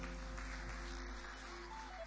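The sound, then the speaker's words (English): Faint, steady clapping from a group applauding a woman who has just shared her thoughts, a dense patter of many hands continuing for about two seconds, with a low hum underneath and no one speaking. “A round of applause for her.”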